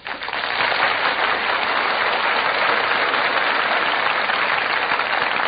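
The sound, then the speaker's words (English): A large theater audience at the Gulf Theater bursts into sustained, loud applause as the cast enters the stage, a dense steady roar of clapping that swells in quickly and holds evenly throughout, with no voices heard. “The audience greets them with a tremendous burst of applause.”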